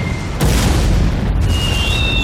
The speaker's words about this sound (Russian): Огонь! Снаряды ложатся в нескольких метрах от черепа Чухи и связиста.